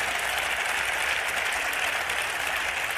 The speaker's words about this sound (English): Uh, give yourself a round of applause for being here. There's a lot of energy in this room right now.